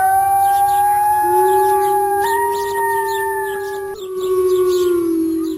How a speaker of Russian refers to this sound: А волки воют от настроения. То есть это совсем не всегда язык, не всегда это перекличка.